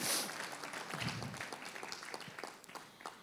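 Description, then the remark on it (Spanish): An audience at a church service breaks into applause to the Lord for their ministries, a dense wash of many hands clapping steadily at moderate volume, with a few louder individual claps standing out and faint voices mixed in. “Un aplauso al Señor por nuestros ministerios.”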